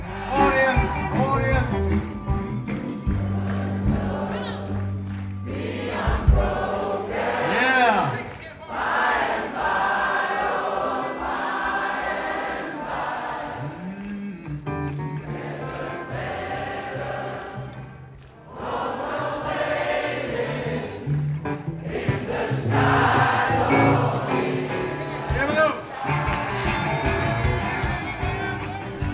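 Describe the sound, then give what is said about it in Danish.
An audience sings along to the chorus while musicians play on stage, loud full band music, many voices blending in sustained melodic lines, with brief dips in the sound before it swells again. “publikum synger med på omkvædet.”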